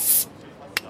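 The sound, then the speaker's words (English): A sharp fizzing hiss as a beer bottle cap is popped off, lasting a split second, followed by a quiet pause and a brief clink near the end. “So sit back, relax, pop a bottle.”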